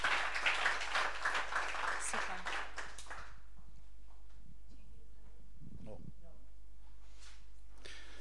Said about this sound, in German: Please can you give him a round of applause? Genau, also Applaus für ihn.